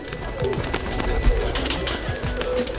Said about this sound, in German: Welches Tier suchen wir? Ich sag es dir. Es ist die Taube.